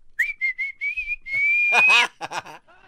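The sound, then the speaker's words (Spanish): A person whistles several short, clear notes and then one long tone that slowly rises in pitch. Voices break in loudly near the end, then a few brief vocal sounds follow. “las aldeas esas a chiflarle a los rockeros.”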